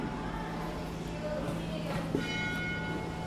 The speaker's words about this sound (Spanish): Suena la campana al fondo.